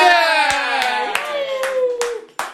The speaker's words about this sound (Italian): Un applauso un po' più vigoroso questo applauso. Dai, dai, che siamo un po' di meno, però oggi, però ci dobbiamo far sentire.